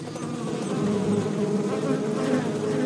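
A dense, steady drone of many honeybees buzzing together, a continuous swarm hum with shifting overlapping tones, loud throughout with no voices.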